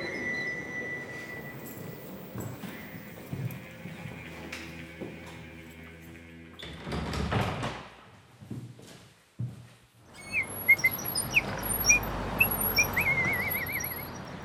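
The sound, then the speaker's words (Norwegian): A cheerful garbage collector whistles a lively tune while emptying trash bins along a riverside promenade; a bin is tipped and emptied with loud rattling clatter, followed by bright chirpy whistling over a steady rumble of street noise. “En eh, lystig renovatør byr på plystrekonsert mens han tømmer søppelkassene langs eh, elvepromenaden.”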